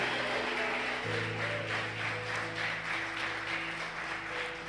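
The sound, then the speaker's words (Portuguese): An audience claps steadily for the Lord for several seconds, a dense wash of many hands, while sustained low keyboard chords hold underneath. No one speaks. “Se você crê, aplauda o Senhor.”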